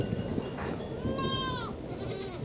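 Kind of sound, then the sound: animal, goats bleating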